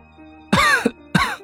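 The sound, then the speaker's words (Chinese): Two harsh, raspy coughs in quick succession after two sips of warm water, the first longer and the second shorter and sharper, standing alone over a faint low hum with no talking. “沈长勋接过，抿了两口，咳嗽两声，开口道：”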